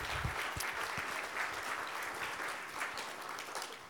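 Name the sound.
audience applause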